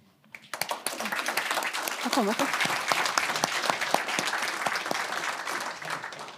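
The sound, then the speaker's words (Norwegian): An audience bursts into sustained applause for Karl Kristian Beking, state secretary in the Ministry of Health and Care Services, many hands clapping densely and steadily for several seconds, with a brief murmur of voices mixed in near the start. “Må gi applaus til han òg.”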